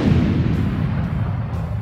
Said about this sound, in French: Le bruit étouffé d'une explosion lointaine se répercuta dans les corridors de la base. La centaine de compresseurs dimensionnels en série, bricolés en chapelet autour de l'astéroïde, étaient tous entrés soudain en surrégime.